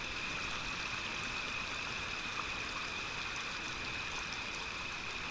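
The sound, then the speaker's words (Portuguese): A stream inside a forest flows steadily under soft moonlight, with a continuous soft rushing and babbling, even and unbroken throughout, with a faint steady high-pitched drone in the background and no voices. “Estamos à beira de um riacho no interior da mata.”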